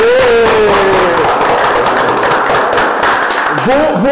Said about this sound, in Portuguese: Aí, merece é a salva de palmas. Aê!